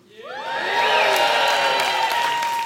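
A large crowd bursts into loud cheering and applause, swelling within half a second into a sustained roar of whoops and high-pitched screams that holds steady to the end.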